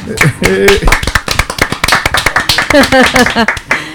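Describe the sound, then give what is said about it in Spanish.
A group applauds the programme at the end of a show, with quick, dense, steady hand clapping throughout, while voices talk and call out loudly over the applause. “Venga, un aplauso por el programa.”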